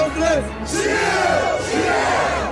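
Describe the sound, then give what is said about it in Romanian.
A crowd at a political speech shouts and cheers together in loud, sustained bursts, many voices overlapping in a continuous roar with rising, chant-like swells. “Ei, țipă!”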